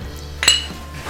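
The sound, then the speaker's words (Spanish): Glasses clink together once in a toast, a bright ringing chime that decays quickly over a low steady background hum. “sonido vidrio”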